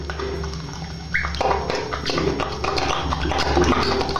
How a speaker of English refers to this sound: That's the sound of him fingering his bloody asshole after fucking it with a hairbrush. It's so juicy. It's not lubed up. Well, it's kind of lubed up. Lubed up with blood.